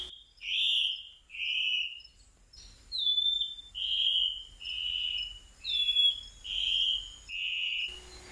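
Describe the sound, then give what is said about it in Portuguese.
A rufous-throated antbird, a bird found only in the Amazon forest, sings a steady series of about nine loud, buzzy whistled notes, evenly spaced, with faint forest ambience and no voices. “Estamos ouvindo o som da mãe de Itaoca avermelhada, uma ave exclusiva da floresta amazônica.”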